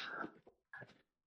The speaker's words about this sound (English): I'm sorry. About, I'm sorry about my dog.